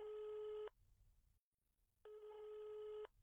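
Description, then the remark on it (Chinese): A telephone ringback tone sounds twice as a phone call is placed, each steady electronic burst lasting about half a second to a second, separated by a short silence. No one speaks. “苏浅赶紧起身，给厉天晴打了个电话。”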